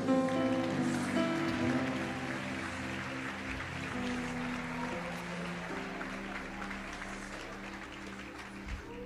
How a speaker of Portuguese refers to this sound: Igreja, pode aplaudir no Senhor.